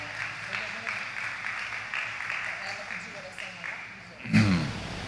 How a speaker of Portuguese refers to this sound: Isso, pode chegar aqui, vamos aplaudir.